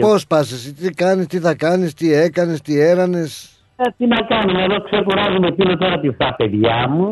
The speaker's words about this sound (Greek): Γιατί ακούγεται έτσι το κινητό σου, το, η φωνή σου. Γιατί, πώ, πολύ ε, σαν ε, παράσιτα έχει μέσα.